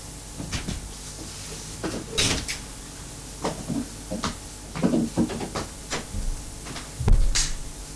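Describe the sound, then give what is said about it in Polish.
A door is opened and closed: a series of knocks, clatters and a brief scraping slide, then a louder thud near the end as it shuts, over a steady background hiss. “teraz jest włączony CNRS odłoży słuchawki, otworzy i zamknie drzwi.”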